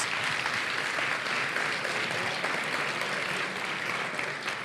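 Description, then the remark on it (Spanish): Sustained applause from an audience for the nominees in the Bienestar y Familia category at the iVox awards, a dense, even clatter of many hands clapping at steady loudness for several seconds, with no voices standing out. “Un aplauso. Un aplauso a los nominados.”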